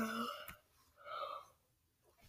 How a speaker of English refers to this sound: Can you stop yawning in the middle of recording? Can you not do that?